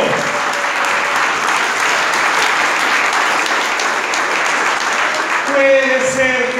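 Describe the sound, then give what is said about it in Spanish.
A crowd claps steadily for several seconds, a dense, even wash of applause that stays loud throughout, with a voice briefly starting to speak over it near the end. “Dese el aplauso.”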